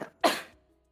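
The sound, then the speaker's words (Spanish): A single forceful sneeze bursts out after a quick sharp intake, then trails off within half a second, with no talking around it. “Salud.”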